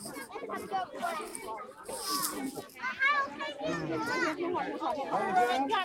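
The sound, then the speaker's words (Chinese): A crowd of people and children chattering at once, a steady, overlapping babble of voices with high-pitched kids' calls rising above it, continuous and fairly loud throughout. “现在全是人了，到处都是人，很多很多的人。我再来数一下鸭子吧。不过现在很吵。”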